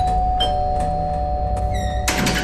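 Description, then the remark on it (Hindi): Several spaced knocks on a house door, sharp, over a steady background hum, followed by a brief ringing chime and a louder clattering burst at the end. “तभी घर के दरवाजे पर दस्तक हुई”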